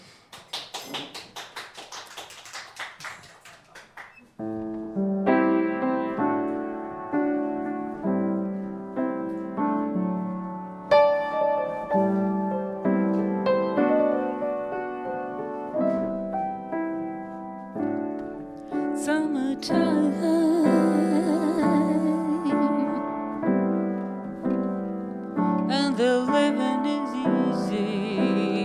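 A live jazz standard gets underway after a few seconds of applause, with sustained pitched instrumental notes in a slow, flowing melody over steady accompaniment. No voices are heard.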